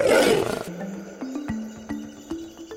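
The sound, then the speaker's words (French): A lion gives one loud, rough roar that fades within a second, followed by a low wavering drone punctuated by faint clicks. “Et là, à peine installé près de lui, le gros lion tourne brusquement la tête et engloutit toute son épaule droite.”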